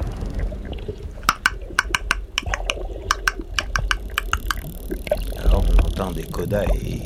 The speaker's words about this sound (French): aussi d'autres clics, hein. cette sorte de cric aussi par moments, c'est euh, comme une porte qui grince et qui signale l'arrivée d'un cachalot.